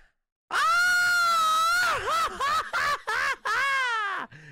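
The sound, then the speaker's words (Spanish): A person's voice imitates the wailing scream of La Llorona, a ghostly woman: a long, high, sustained cry that breaks into several wavering, sobbing bursts before trailing off, loud. “Grito de la llorona, más o menos.”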